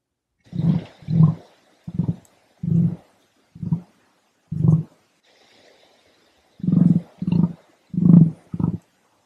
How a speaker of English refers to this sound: I have no idea what noise an emu makes. I imagine that they make a noise just like. Now I need to know. The sound of the emu.